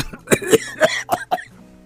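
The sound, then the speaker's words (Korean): A quick fit of about five harsh, throaty coughs from a man with a choked-up throat, in rapid succession, fairly loud, fading into quiet, with no talking. “오밤중에 게임할 생각을 하니 목이 메어서 난데없이 기침이 나온다.”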